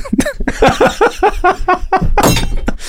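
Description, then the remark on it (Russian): A drinking glass is smashed by a man and breaks to pieces, a loud bright crash with a scatter of sharp tinkling shards and clinks, ending in a final burst of breaking glass. “Он разъебал стакан.”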